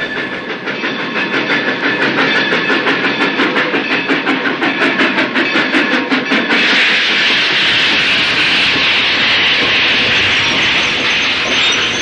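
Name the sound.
train running on rails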